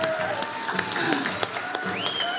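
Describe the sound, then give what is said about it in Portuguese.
A crowd claps continuously in a steady, dense patter of applause, fairly loud, with a few cheers and raised voices rising above it. “Yes, Palmas.”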